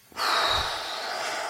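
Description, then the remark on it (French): A person blows out a single forceful breath through the mouth to demonstrate a bodily sensation, loud, a steady rushing hiss that holds for over a second with no talking. “Je peux souffler si j'ai soufflé.”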